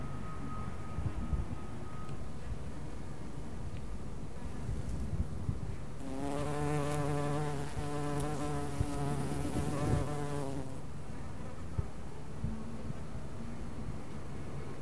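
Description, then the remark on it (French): Bees, bumblebees and flies buzz steadily as they feed on nectar against a soft outdoor background, with one insect's drone swelling loud for a few seconds mid-clip before drifting off again. “n'y a pas de Covid-19 pour les abeilles, les bourdons, les papillons, les mouches, même pour les corneilles.”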